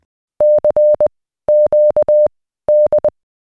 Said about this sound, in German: Und Marconi hatte fast zeitgleich das Signal CQD für Notfälle eingeführt. Das klingt so.